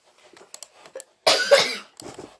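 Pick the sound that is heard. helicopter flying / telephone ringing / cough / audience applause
cough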